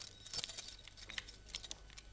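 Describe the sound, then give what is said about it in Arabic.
The keys of the Kasbah citadel jangle as the pasha hands them to the citadel's new commander: short, bright metallic clinks, a quick cluster of chimes repeating over about two seconds, fairly quiet, with no one talking. “أنت من الآن قائد القلعة خذ هذه مفاتيح القصبة”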